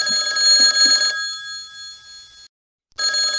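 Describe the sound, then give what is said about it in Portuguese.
A telephone at a suicide prevention helpline rings loudly, a bright trilling tone that sounds for a couple of seconds, pauses briefly, then starts ringing again. No voices are heard. “Um momentinho, por favor, porque eu estou com outra pessoa no outro telefone.”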